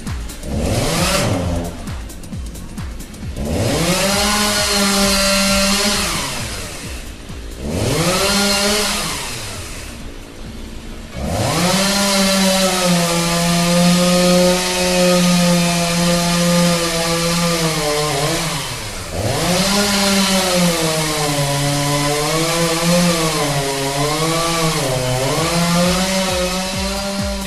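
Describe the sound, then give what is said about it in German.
A chainsaw engine revs loudly while cutting wood after a storm, its whine repeatedly surging up and dropping back in long pulls, with sustained high-pitched stretches as if biting into wood. No voices. “Die Folgen des Sturmtiefs Olivia wurden Ihnen präsentiert mit freundlicher Unterstützung der Firma Kamp Kettensägen und Maschinenverleih”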